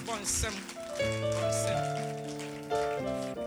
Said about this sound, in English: Oh, you, if you are clapping, clap. You're not clapping for me, you are clapping in agreement with the word of God. Hallelujah.